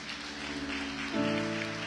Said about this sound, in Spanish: Dele palmas al Señor.